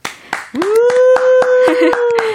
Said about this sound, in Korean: 우리 모두에게 박수 둘 다 잘했다.